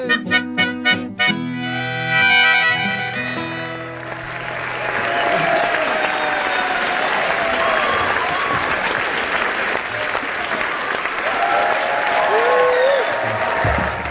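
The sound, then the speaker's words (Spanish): A few bright musical notes end abruptly, then a large audience breaks into sustained, dense applause that rolls on steadily, with scattered cheers and whistles rising above the clapping. “lo de los aplausos.”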